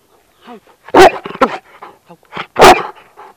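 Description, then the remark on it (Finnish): A large Hovawart service dog lets out two loud barks about a second and a half apart, with softer whines and huffs in between, on a path in Helsinki's Central Park, Finland, in cool, cloudy weather. “Hovavart rotuinen Severi on palveluskoira.”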